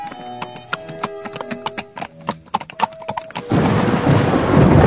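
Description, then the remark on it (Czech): Horse hooves clip-clop in a quick, uneven rhythm alongside creaking sounds of a horse-drawn carriage travelling through northeastern France to Paris, for about three seconds before a loud, steady rushing noise like heavy rain and wind swamps everything as a storm strikes the carriage. “Cesta do Paříže byla dlouhá a nepohodlná.”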